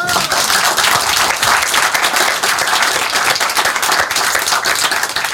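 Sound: audience applause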